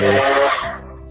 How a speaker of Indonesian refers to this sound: terus kan suara apa itu motor iya sering banget namanya pinggir jalan biasa lebih nyaring lagi pak oh. biasa kalau sudah dekat-dekat ya ya ya Ada maklum teman-teman berada di pinggir jalan kita ya gitu sih